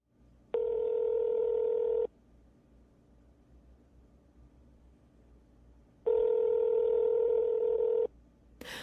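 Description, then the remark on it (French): Two long, steady telephone line tones, each lasting about a second and a half and separated by a few seconds of near silence, clear and fairly loud with no one speaking. “Après avoir ouvert l'enveloppe et découvert son contenu dans la plus grande stupéfaction, j'avais tout de suite appelé”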